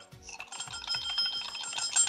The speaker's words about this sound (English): All right. It's bell time. Here we go.